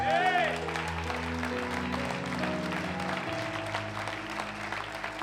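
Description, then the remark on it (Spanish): A church audience claps in a steady, dense wash of applause over sustained music with a low bass drone. The clapping stays fairly loud and even throughout. “Iglesia, dale un fuerte aplauso.”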